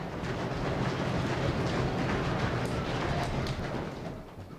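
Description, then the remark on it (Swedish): A crowd of people stamping their feet together, making a continuous heavy rumble that imitates thunder. The dense pounding stays loud and steady for several seconds before easing off slightly at the end. “Stampar i fötterna så låter det som åska.”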